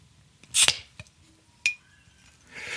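A glass bottle is levered open with a lighter, giving a sharp metallic pop, a clink of the cap, then a soft fizzing hiss, with no talking.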